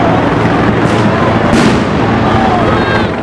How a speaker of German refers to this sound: Wenige Blocks vom Weißen Elefanten entfernt wirft die Polizei Betäubungsgranaten in eine Gruppe Demonstrierender